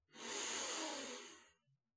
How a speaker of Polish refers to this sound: Bardzo głęboki oddech, zatrzymać go, Bardzo głęboki wdech. Zrób to teraz ze mną. Bardzo głęboki wdech. Taki wiesz, żeby ci do brzuch wypełniło.